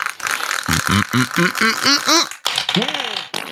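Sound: dice being rolled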